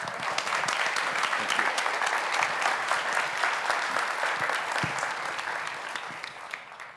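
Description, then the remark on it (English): A church audience applauds steadily to welcome Dr. Mike Fabarez, many hands clapping in a dense, crackling wash that holds strong for several seconds before tapering off slightly near the end. No one speaks over it. “even if you're not clapping, and I see those of you that aren't.”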